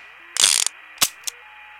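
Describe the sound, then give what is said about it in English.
A revolver hammer being cocked: a brief metallic ratcheting rattle followed by two crisp, sharp clicks, with no voices around it. “That's the hammer of the gun. The pointy bit in the back that goes click, click.”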